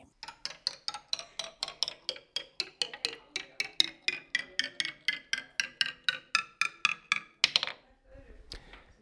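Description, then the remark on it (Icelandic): A toy in a workshop on Álafossvegur in Mosfellsbær gives off a steady run of sharp, bright ticks, about three per second, for roughly seven seconds. Then it stops with a short rasping burst and some faint rumbling. “Þetta hljóð er hér í leikfangi hér upp á uh, eh, áskarði vinnustofu sem er í, í, við Álafossvegin í Morsfellsbænum”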